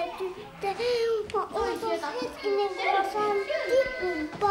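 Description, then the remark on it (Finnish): A lively bustle of children playing indoors in a daycare, several high-pitched young voices chattering and calling out over one another, continuous. “lapset alkavat leikkiä, kapteeni jää yksin pujottelemaan helmiä”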